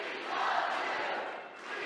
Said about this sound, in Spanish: Todos le gritan, te queremos, te queremos.